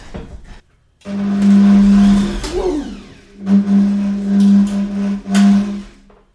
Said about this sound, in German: wo auch schon jetzt die ähm, Butter oder in dem Fall die Margarine drin ist und werde das jetzt hier in einen Mixer geben und versuchen zu mixen. Das ist das erste Mal, dass ich diesen Mixer überhaupt benutze. Schauen wir mal, ob das klappt.